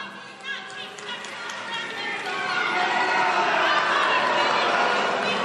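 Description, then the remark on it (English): A crowd of protesters yelling together in a dense, continuous roar of many overlapping voices, building in loudness after the first couple of seconds and staying loud and sustained to the end. “protesters yelling in the background.”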